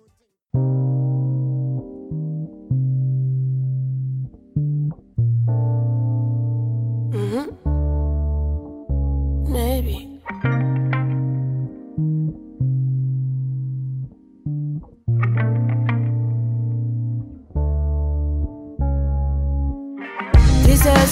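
A song with a heavily pitch-corrected lead vocal holding long sustained notes over a deep, steady low end, broken by short pauses and audible breaths, playing loud and close throughout.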